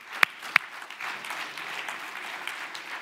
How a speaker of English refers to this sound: Come on. How about applaud some courage?